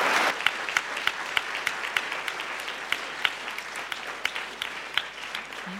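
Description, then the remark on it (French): An audience claps steadily for several seconds for a lecturer at the close of a talk, a dense patter of many hands with sharper individual claps popping out of the sustained wash of applause. “Je vous propose d'applaudir encore une fois notre conférencier.”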